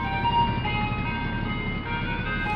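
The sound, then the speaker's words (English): A tinkling ice cream truck jingle plays steadily, its bright repeating melody loud with a faint low rumble underneath and no talking. “Hear that? It's just the kind of music a regular ice cream truck would play.”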